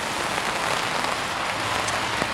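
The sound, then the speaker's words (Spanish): Heavy rain pours down steadily outdoors in Valencia, falling on people out on a walk, a dense, continuous hiss of drops spattering on surfaces, with no voices over it. “Creo que escucharéis que nos está cayendo una importante lluvia encima.”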